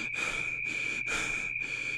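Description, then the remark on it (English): A man panting in quick, heavy breaths, about four even bursts in two seconds, fairly loud, with a steady high-pitched whine running underneath. “His eyes follow the darkness upward to see the black spire looming above, the sheet of shadows swelling and contracting with his panting breath.”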